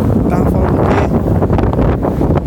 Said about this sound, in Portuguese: Pô, tá ventando muito